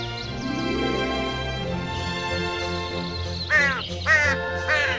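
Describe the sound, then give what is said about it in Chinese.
Three harsh, raspy caws from a flock of crows returning to roost in the sunset sky arrive in a quick, evenly spaced series near the end, rising over a steady bed of soft, sustained music that plays throughout. “成群的乌鸦赶着归巢的影子，浮现在闪亮的天空，如同一幅画作。”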